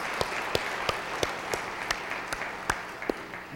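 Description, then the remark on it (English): A crowd applauds the founding parishioners of a parish, a dense wash of clapping with a few sharper individual claps standing out at a regular pace, holding a fairly even level throughout. “I get a good round of applause to our founding parishioners.”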